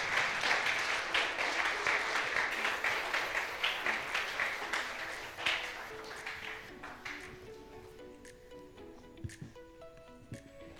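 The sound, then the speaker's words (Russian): A church audience claps steadily and fairly loudly for the people who serve, the applause thinning out after several seconds as soft sustained keyboard notes take over in the background. “Подарите им а, большие аплодисменты.”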